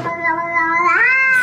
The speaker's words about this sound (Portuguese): o gato começa a miar de uma forma ameaçadora. Quem tem gatos sabe que eles fazem isto quando estão muito, muito furiosos. Isto é o gato. Eu nunca vi um gato a fazer isto. juro que fazem isto quando estão irritados.